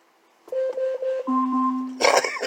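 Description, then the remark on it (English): An Alexa smart speaker's timer alarm sounds: a quick run of repeated mid-pitched beeps, then a longer, lower sustained tone, cut off by a sudden burst of noise at the end. “When I tell you to stop a timer, you stop a timer immediately.”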